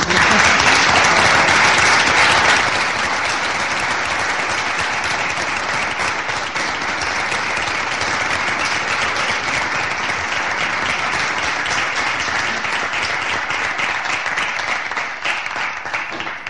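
Sustained applause from a large crowd, a dense, steady patter of many hands clapping that starts loudest and eases slightly after a couple of seconds, continuing for the whole stretch. A speaker at a town event has called for the applause in honour of those present.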